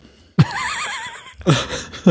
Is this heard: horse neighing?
yes